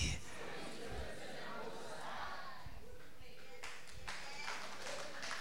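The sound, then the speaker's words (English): An audience claps in a steady, dense wash of applause that runs the whole length, with murmuring voices mixed in and a few sharper claps standing out near the end. “I didn't ask you to clap, but if you're going to clap, you better clap with passion.”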